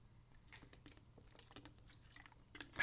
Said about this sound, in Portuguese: Pá, parem aí que eu tenho mesmo que beber essa aguinha, que a minha garganta não está a aguentar.